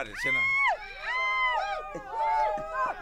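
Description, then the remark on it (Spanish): A group of coworkers shout and cheer together, their overlapping voices high and rising and falling in pitch, in three loud swells with brief dips between them. “Si pueden volver a gritar, por favor, tan amables?”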